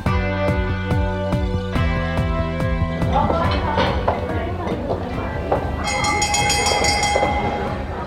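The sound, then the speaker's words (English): A dinner bell sound effect marking a dinner party question segment: loud, sustained ringing chords that shift in pitch, layered with a busy clatter, and bright high chimes ringing out near the end. “And that's the dinner bell, which means it is time for our dinner party question.”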